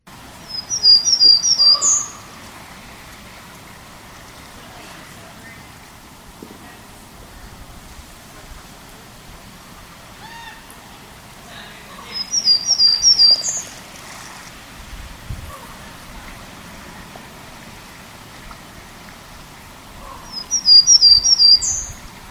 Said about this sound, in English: So once again, that was a Townsend's Warbler song. Pretty distinctive, but it was one of the ones that took me the longest to figure out because uh, it does vary from place to place